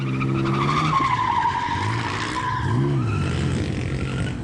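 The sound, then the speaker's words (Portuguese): Car tires squeal loudly and continuously as a driver showing off spins a car on a deserted street in Brazil, with shifting, wavering pitches over a rumbling engine, steady for several seconds with no talking. “Na rua deserta, o motorista se exibe, faz o carro rodar na pista e canta pneu.”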